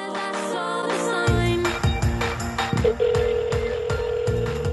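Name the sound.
phone ringing on speakerphone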